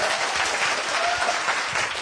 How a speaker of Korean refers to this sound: 박수 지금까지 부탁드립니다.